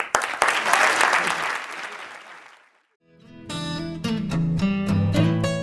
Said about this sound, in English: But thank you very much. Give one more hand around.